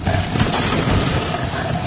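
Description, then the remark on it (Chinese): A loud, harsh cracking crash like a huge plate being smashed, a dense rumbling shatter that stays strong for about two seconds with no voices over it. “就在这时，他们听见从背后传来一声，仿佛是一个巨人砸碎一个大盘子的破裂声。”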